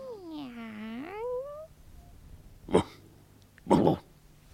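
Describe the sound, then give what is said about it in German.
The cat Kiki Ladoucette from Colette's dog-and-cat dialogues, in Paris, lets out one long meow that dips and then rises in pitch. Two short, harsh, breathy bursts follow a moment apart. “Amüsante „Hund und Katz“-Dialoge von Colette”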